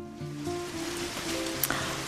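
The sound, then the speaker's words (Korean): Steady rain hisses and patters continuously, a dense wash of fairly loud noise, with a faint tonal hum or soft music sitting underneath and one brief sharper splash near the end. “아, 우산도 없는데 비가 오는 겁니다.”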